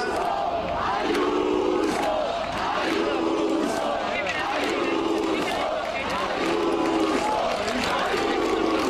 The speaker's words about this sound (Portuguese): não podias deixar escapar os militantes do BP a gritarem por Ayuso enquanto Feijó fazia o discurso da vitória.